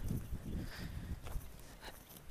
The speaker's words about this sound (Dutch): Zoals ik nu op dit moment buiten wandel. Dat hoor je waarschijnlijk. Misschien hoor je wat vogeltjes en hoor je wat gekraak van wat grind onder mijn voeten.